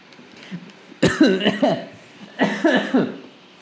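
Two harsh coughing fits, each a cluster of rough, raspy bursts lasting under a second, separated by a short pause. Fairly loud and heard alone, with no talking.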